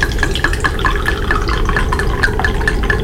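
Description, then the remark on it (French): Liquid pours steadily into a glass for about three seconds, a continuous splashing stream with quick bright gurgling blips over a low rumble. No one speaks. “serre-nous plutôt un coup.”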